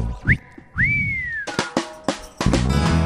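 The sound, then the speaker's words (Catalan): A loud whistle rises in two quick upward swoops, the second holding and sliding slowly down, before bursts of percussive music cut in. No one speaks. “Just entrar va trobar la més bella només va poder xiular.”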